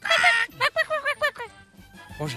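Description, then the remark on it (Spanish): A person imitates a chicken clucking, starting with a loud squawk followed by a quick series of about five rhythmic clucks, fairly loud, with no other talk. “¿Cómo le hace la gallina?”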